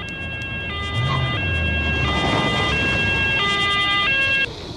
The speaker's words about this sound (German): Da kommt die Feuerwehr wieder an.